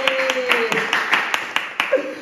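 Sharp hand claps for a woman's birthday, after singing of Cumpleaños feliz, in a steady, fairly quick rhythm, about ten of them over two seconds, with a sustained vocal sound humming underneath.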